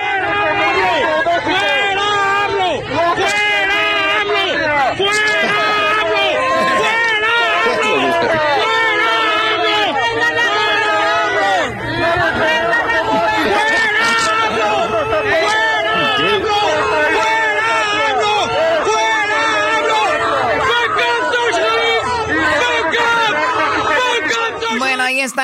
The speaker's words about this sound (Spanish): lo que gritaba la gente